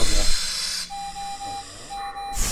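A breathing machine ventilating a sleeping child at the family's home: a steady airy hiss with a thin, sustained mid-pitched tone that breaks off briefly and resumes, all at an even, moderate level with no voices.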